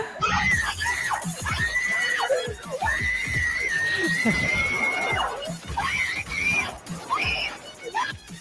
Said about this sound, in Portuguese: Esse grito.